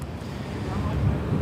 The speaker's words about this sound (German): So, und da bin ich auch schon. Man hört es vielleicht am Wind. Ich befinde mich jetzt äh, direkt an der Tokyo Bay